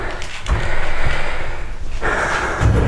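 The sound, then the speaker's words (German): A chair gets bumped indoors, giving a few dull, low knocks over a steady rustling background, with a final thud near the end. No one speaks. “Aha, ups, das war der Stuhl”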